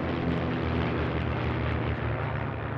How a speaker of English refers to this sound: The ceremony begins when planes fly overhead and perform a maneuver known as the missing man formation.